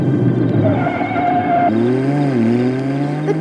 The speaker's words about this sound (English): And here comes a car. He's gonna hit him.